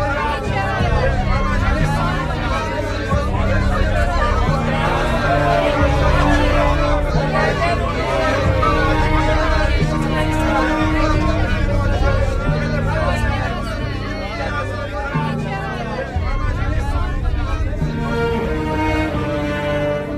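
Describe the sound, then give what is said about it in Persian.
A large crowd of protesters, people without access to water and food, fills the scene with a loud, continuous roar of overlapping shouts and voices, steady for the whole stretch with no single speaker standing out. “این نامه به وضوح شنیدین صدای اعتراض مردمی بود که دسترسی به آب و غذا نداشتند”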